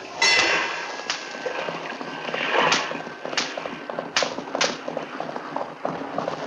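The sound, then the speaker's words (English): Horse hooves clip-clop at a steady walking rhythm as horses travel on a track along a river, with sharp irregular knocks and creaking over a busy background rumble, moderately loud. “We've got horses, and we follow on the track along the river.”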